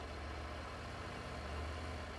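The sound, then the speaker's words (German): A small car engine idles, a steady, even low rumble that continues unbroken throughout with no voices or other sounds over it. “Panther, Twingo, das sind die Autos hier.”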